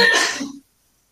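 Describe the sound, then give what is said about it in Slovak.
A single short sneeze, a sharp burst of breathy noise lasting about half a second before cutting off into silence, with no talking. “na zdravie”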